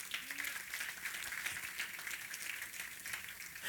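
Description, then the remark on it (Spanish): An audience at an evening church service applauds the Lord steadily, a dense, continuous wash of many hands clapping that holds an even level for several seconds with no voices standing out. “Den un aplauso al Señor esta noche.”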